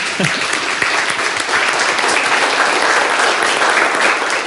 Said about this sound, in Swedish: Och visst är de duktiga. Visst är de värda en applåd. Va?